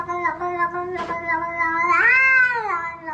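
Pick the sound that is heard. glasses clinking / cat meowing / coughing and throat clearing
cat meowing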